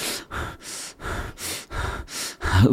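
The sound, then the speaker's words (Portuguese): A person imitates the short, rapid breathing of an anxiety attack: about six quick, hissing breaths in a steady rhythm, the last one slightly louder and rougher, with no talking. “Mais rápido, sentir aquela respiração mais curta.”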